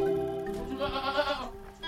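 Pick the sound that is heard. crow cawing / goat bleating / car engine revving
goat bleating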